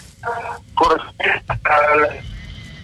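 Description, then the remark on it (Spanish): A garbled, tinny voice comes through a noisy phone line in short choppy bursts, with a steady hiss and crackle of interference underneath, from a reporter calling in as the Chivas Rayadas del Guadalajara match is about to start. “tenemos como un poquito de interferencia ahí donde te encuentras.”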